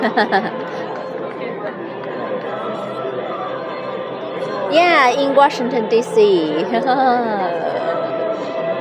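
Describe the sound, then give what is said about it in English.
Dense, steady chatter from a large crowd at a welcome celebration concert in front of the Lincoln Memorial on a sunny, warm day, many overlapping voices blending into a constant murmur, with a person speaking over the din in the latter half. “yes, a lot of people here.”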